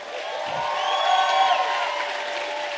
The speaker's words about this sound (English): oh, come on and clap better than that.